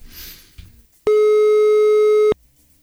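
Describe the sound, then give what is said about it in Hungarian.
A single telephone ringing tone as the Rádió 1 live show places a call, a steady, loud electronic buzz lasting just over a second, preceded by faint rustling and followed by quiet. “Na jó, most már, most már csörögünk végig.”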